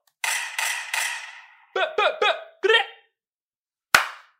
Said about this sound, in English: Ooh, and, hold on, bruh. Gotta get an air horns.